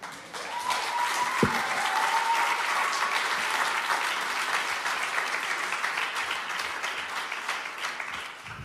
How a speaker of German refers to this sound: Gebt den drei nochmal einen richtigen Applaus für die ganz, ganz starken Worte und für diese Vision von Freiheit, die Sie uns aufgezeichnet haben.